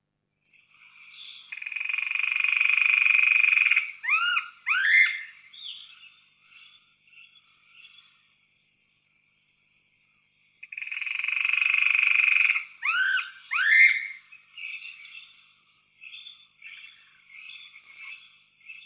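The now-extinct Alagoas foliage-gleaner calling twice: each bout is a dry, rapid trill of about two seconds ending in a few quick sharp notes, with a long pause between, over a steady faint insect hum.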